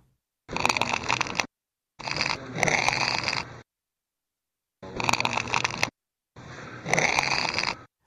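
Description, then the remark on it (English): Crackling of a tin bar being bent comes in four separate bursts, each about a second long with brief pauses between, a dry, raspy creaking heard clear with no talking. “There's See, that, that uh, crackling. That, that is not a cry.”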